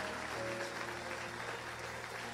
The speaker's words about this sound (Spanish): De un aplauso fuerte a nuestro Señor pero que sea fuerte ese aplauso a nuestro Señor.